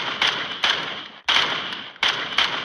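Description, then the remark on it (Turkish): Several sharp gunshots crack over a tinny phone line during a 911 emergency call in Germantown, about five in quick uneven succession, each one loud and followed by a ringing, muffled tail of noise. “Silah sesinden başka bir şey duymadım.”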